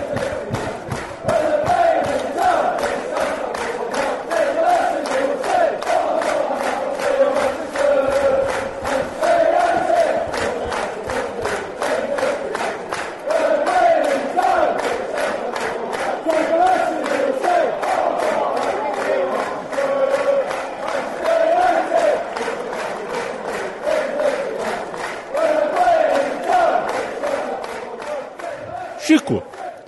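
A large crowd of football supporters chants in unison, a steady rhythmic mass of voices sustained loudly for the whole stretch, with repeated phrases rising and falling and no single speaker standing out.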